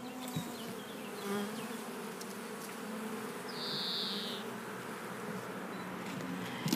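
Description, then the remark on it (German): A dense, steady hum of many honeybees buzzing around an open hive, a continuous droning swarm with individual bees passing now and then, and no talking. “Und wir hören es jetzt auch tatsächlich ganz kräftig fliegen.”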